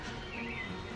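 Soft, steady outdoor ambience with faint, low bird chirps drifting through it, a gentle nature-sounds track played as background music, with no one talking.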